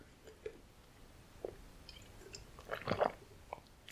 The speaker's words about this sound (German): Nehmt nochmal einen Schluck Tee, ich nehme nochmal einen Schluck Wasser und dann erzähle ich euch, was hochgekommen ist.